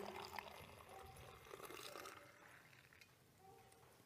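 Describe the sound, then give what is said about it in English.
Liquid splashes and trickles into a cup in a steady, quiet stream, with a few soft gurgles rising over a faint background hiss. “And in the same way, he took the cup, he poured it out for them.”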